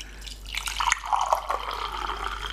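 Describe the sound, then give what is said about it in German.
Fresh tea is poured into a cup, a steady trickling stream with small splashy drips, lasting a couple of seconds on its own with no one speaking. “Ich gieße mir gerade neuen Tee ein.”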